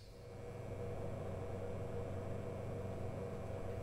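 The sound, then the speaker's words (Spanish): Quiet hospital ICU waiting room ambience: a steady, low electrical and ventilation hum fills the large, cold, empty space, fading in briefly and then holding constant, with no voices or distinct events. “La sala de espera de la UCI es diferente.”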